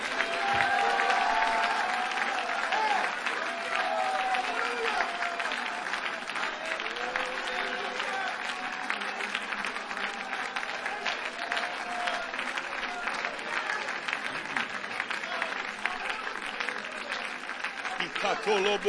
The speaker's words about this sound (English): Would you clap your hands and lift your voice and let's just make some joyful noise here tonight?